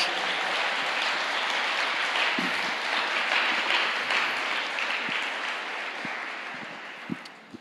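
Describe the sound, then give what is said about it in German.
A church audience applauding Jesus during a service, a dense, steady wash of many hands clapping that holds for several seconds, then gradually thins out with a few last isolated claps. “Lasst uns doch mal Jesus einen Applaus geben.”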